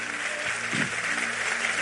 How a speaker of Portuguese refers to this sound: Terminando. Aplauda.